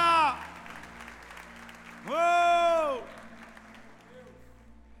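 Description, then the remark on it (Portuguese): A church audience applauds in worship of God in a steady, dense wash of clapping, while a loud sung or shouted exclamation rises over it twice, briefly at the start and again for about a second midway. “Nós adoramos o teu nome e aplaudimos aquele que é digno de toda honra e glória.”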